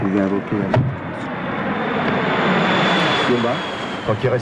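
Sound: airplane flying overhead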